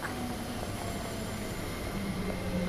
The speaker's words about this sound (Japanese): 電車来た